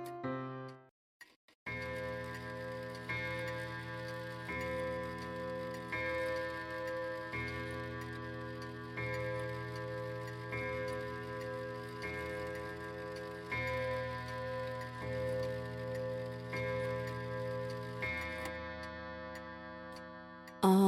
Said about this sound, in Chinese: 哦，是时钟的声音。诶。现在几点了呢？说到这个钟，是我们从南方小岛搬来波卡波卡村山上的时候一起带过来的。